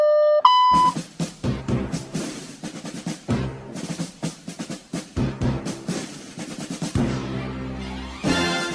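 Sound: voicemail beep tone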